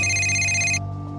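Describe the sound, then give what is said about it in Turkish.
A telephone rings with a bright, steady electronic tone as an evening call comes in from an unsaved number; it cuts off abruptly after under a second, leaving a low hum behind. No one speaks. “Ta ki ertesi gün akşam saatlerinde kayıtlı olmayan o numaradan bir arama gelinceye kadar.”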